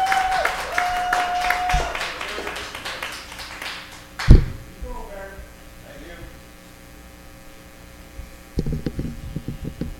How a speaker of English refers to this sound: Everybody, give a nice round of applause to our host for the evening.